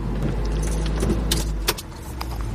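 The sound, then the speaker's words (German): A car engine idles with a steady low rumble after the car pulls over to the right and stops. Jingling keys clink, and then the engine is switched off abruptly, leaving a quieter hum and a few small clicks. “Jetzt bitte rechts ranfahren und anhalten. Bitte den Motor abstellen.”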